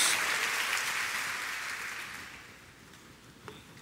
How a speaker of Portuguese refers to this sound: Pode celebrar, pode dar uma salva de palmas ao Senhor, em nome de Jesus, em nome de Jesus.